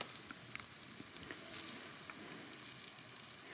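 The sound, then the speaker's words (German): Steak searing in a hot pan just after the meat is put in, forming a crust: a steady bright hiss of sizzling fat with scattered small pops and crackles throughout, fairly quiet and with no one talking. “Steaks perfekt zubereiten”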